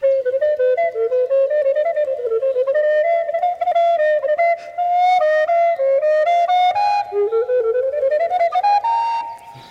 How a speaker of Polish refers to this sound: Pojawiły się kolejne pojęcia zawiłości: kwintole, sekstole, septole, a więc grupy dźwięków kolejno po 5, 6 i 7. A brzmi to tak.